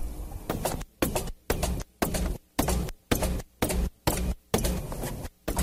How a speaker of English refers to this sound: And here's what happens when the machine gains control and mangles your tape.